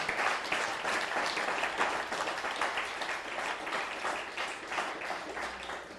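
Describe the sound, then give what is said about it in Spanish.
Steady applause from a crowd, many hands clapping in a dense, continuous patter at an even loudness throughout, with no voices standing out; the applause is given to the Almighty after the counting of the Omer. “Dale un fuerte aplauso al Todopoderoso.”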